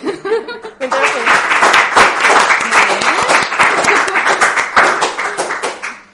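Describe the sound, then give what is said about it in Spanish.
A crowd breaks into sustained applause, dense overlapping claps filling the space for several seconds after a brief moment of speech, with a few scattered laughs mixed in. “De un lado para otro y cada vez aplaudís y el que más...”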